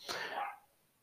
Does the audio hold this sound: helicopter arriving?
no